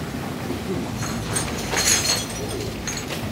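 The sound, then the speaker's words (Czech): Glass shards clink and rattle on a running conveyor, a steady mechanical rumble underneath with a brighter flurry of clinking in the middle. No one speaks. “Pozor, jedou střepy, ať se neříznete.”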